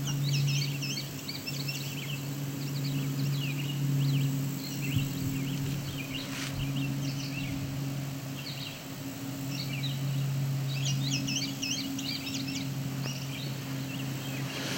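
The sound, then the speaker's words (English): Bunting calls repeat in short, high, descending "dee dee" bursts over a steady low engine-like drone, the bird notes coming in clusters throughout. “So I don't know if there's a mnemonic for go bunting, I find their descending tones something I can listen for.”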